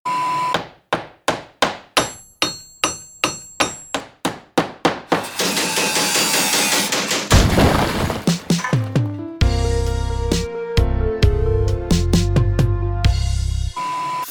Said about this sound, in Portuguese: E fiquem com a nossa martelada do nosso vizinho. O top 5 marteladas, então, para encerrar esse, esse episódio.